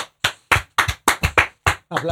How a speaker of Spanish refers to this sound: queremos aplausos. Aplaudimos, sí.